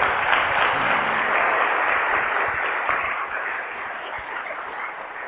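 A crowd of people from Colombia applauds steadily during a talk, a dense wash of many hands clapping at once, loud and sustained before easing off slightly toward the end.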